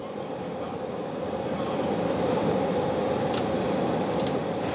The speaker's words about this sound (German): 1 Uhr nachts. Pünktliche Ankunft der Eurofighter.